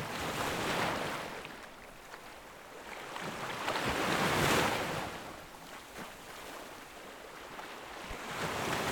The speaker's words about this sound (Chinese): 你知道你身处在海边，海浪的声音似乎是来自于你前方的远处，风也是从你的前方迎面吹来的。你用你的脸 仔细的感受着风的流动、节奏跟温度。